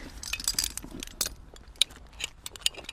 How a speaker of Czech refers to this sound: A nakonec už jenom helma. Cvaknutí u ucha je vždycky znamení, že už to začíná.